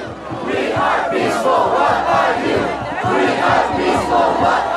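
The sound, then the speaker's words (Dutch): A large crowd of protesters chants loudly and steadily in unison at a street demonstration, voices rising and falling in a continuous rhythmic roar with no pauses. “Er wordt altijd gezongen bij die demonstraties.”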